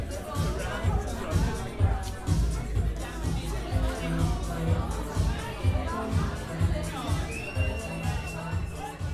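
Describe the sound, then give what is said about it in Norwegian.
Party chatter at a celebration in a home in Oslo at dusk, many overlapping voices talking and laughing steadily, with a low rhythmic thump of music underneath throughout. “Lyden av latter og musikk fyller luften.”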